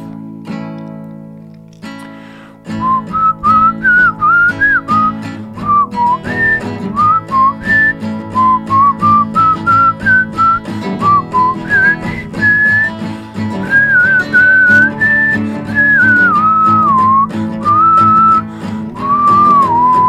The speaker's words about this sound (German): Ich pfeife vorneweg die Melodie, damit sie zu erkennen ist für groß und klein, alt und jung, dick und doof.